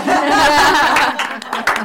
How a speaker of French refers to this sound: du coup, vu que c'est notre première émission, on peut s'applaudir.